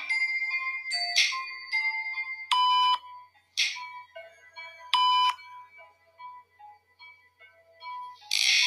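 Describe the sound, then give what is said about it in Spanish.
An Alexa smart speaker, asked to detect paranormal activity, plays a run of electronic chime tones that repeat as a light turns on: bright melodic notes in short bursts with a few louder, sharper pings among them, clear, with no one talking. “Por eso se repite como el sonido de donde prende la luz.”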